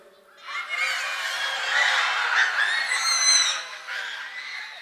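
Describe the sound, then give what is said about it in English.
A group of children's voices imitate a rooster crowing together, a loud, overlapping, drawn-out cock-a-doodle-doo chorus lasting several seconds, with some high squealing voices mixed in. “Let me hear a rooster crow real quick.”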